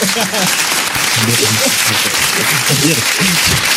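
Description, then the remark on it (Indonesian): Steady, dense applause with many hands clapping continuously for a few seconds, loud throughout, while several voices talk and call out over it. “Iya, iya, hey, setelah sekian lama tepuk tangan tepuk tangan tepuk iya. tangan.”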